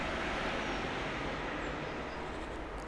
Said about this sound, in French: La rumeur que vous entendez en arrière-fond c'est celle d'un immense pont d'autoroute qui se trouve à quelques centaines de mètres du jardin.